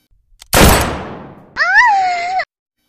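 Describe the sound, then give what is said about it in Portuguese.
A single loud cannon blast booms out and rumbles away as the cannon used on the Cart Titan fires at soldiers, followed by a sustained, wavering cry of pain lasting about a second. “o canhão que usaram no Titã Carroça também estava sendo utilizado contra os soldados, não só contra o, o, Eren, mas sim contra todo mundo que caia na frente do, do canhão.”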